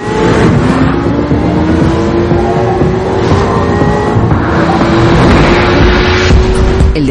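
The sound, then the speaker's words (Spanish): A black Corvette sports car engine roars loudly and steadily, its pitch climbing as it accelerates hard to 110 miles per hour while chased by half a dozen police patrol cars, with a constant dense rumble and no voices. “deportivo acelera y el cuenta kilómetros marca 110 millas por hora.”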